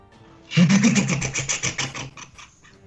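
A motorboat engine cranks and sputters to life, a rapid pulsing rumble that runs for about two seconds before fading into uneven chugs. Fairly loud, with no talking.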